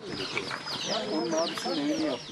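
A hen clucks in short, repeated bursts, with high chirps layered over a busy, continuous background. The hen is in Malatya, Turkey, carrying its chicks on its back during flooding and mud after heavy rain. The sound is steady throughout.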